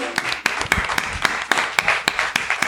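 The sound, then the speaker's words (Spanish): An audience applauds the first president and founder of the Alipod association with a steady patter of overlapping hand claps. The rhythm is uneven, with a few sharper claps standing out above the moderately loud wash; no voices are heard. “Me gustaría, por favor, que dieras un aplauso.”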